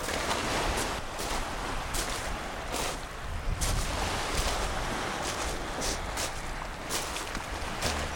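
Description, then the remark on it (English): Sea water laps and splashes against seaweed-strewn rocks in a steady wash, with brief brighter surges every second or so and a constant breezy rush underneath. No one speaks. “couple of gulls going over the sea, lapping at these seaweed strewn rocks.”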